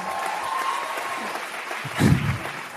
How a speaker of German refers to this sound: Jetzt klatscht ihr noch, aber sowas jetzt kommt.